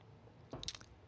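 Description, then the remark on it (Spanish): A single quick sip of sake, a short wet slurp with a faint swallow, alone against quiet background hiss. “saben que estoy tomando un sorbo”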